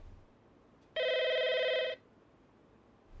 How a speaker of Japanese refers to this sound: 電話、誰だろう。